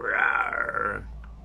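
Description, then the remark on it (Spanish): A person voices a tiger's roar: one drawn-out, raspy growl lasting about a second, loud, then breaking off into quiet. “Y un día se sintió un rugido súper fuerte en el bosque.”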